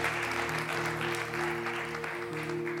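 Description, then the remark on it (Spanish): A crowd applauds with dense, steady clapping that holds an even loudness for the whole stretch, while sustained low tones hum underneath. “¿Podemos dar un aplauso a las personas que han enviado las preguntas?”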